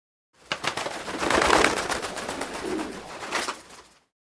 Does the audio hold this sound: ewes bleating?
no